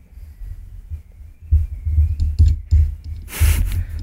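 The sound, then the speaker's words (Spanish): Heavy handling noise as a microphone boom arm is shifted and repositioned so the pop filter covers the microphone: low thumps and rumbling knocks in bursts, with a brief scraping rustle near the end. No one speaks. “El antipop ahora está en una posición en la que no cubre bien el micrófono directamente. Voy a tener que mover este bracito de mierda.”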